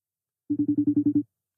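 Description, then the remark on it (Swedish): A telephone ringing tone of an outgoing call sounds as one quick trill of about eight rapid, evenly spaced buzzy pulses, clear and fairly loud, with silence before it and a new sound just starting at the end. “Nu låter det i lurarna.”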